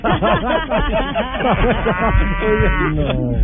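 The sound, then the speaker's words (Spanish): Several cows moo in overlapping, drawn-out calls, one low bellow following another with a long sustained moo near the end, fairly loud throughout. “dígale que me mande unas vacas, pero de las que dan leche, porque las mías no dan tanta leche.”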